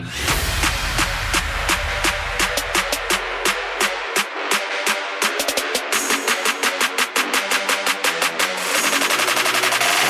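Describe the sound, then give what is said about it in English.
Fireworks for the 4th of July: rapid bursts of sharp bangs and crackles pop in quick succession, loud, with a dense rattling barrage swelling toward the end and no voices. “One Gotta Go Lame Firework Edition with 4th of July coming up on Monday.”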